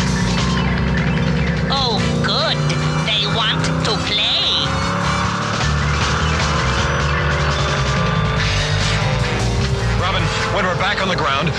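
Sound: car driving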